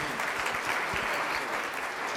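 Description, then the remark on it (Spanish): Steady audience applause for a participant called up as 'our champion of Colam' fills the whole moment, many hands clapping at once in a dense, even wash of sound, moderately loud, with no talking over it. “Un aplauso aquí a nuestro campeón del Colam.”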